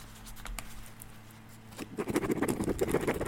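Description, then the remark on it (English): A pen scratches across paper as someone signs: a few light, scattered strokes at first, then a quicker, busier run of dry scratching in the second half. No one speaks. “Hear that sound? That's my signature right there.”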